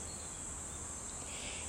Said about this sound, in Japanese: 今の私のいいねはちょっとだけセミが鳴いているということです